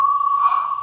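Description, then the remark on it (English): A slowed-down free-tailed bat echolocation call: one steady, whistle-like tone held for nearly a second, clear and fairly loud, with no voices over it. “This is just a very slowed down recording. Now, there, that's a call of a free-tailed bat.”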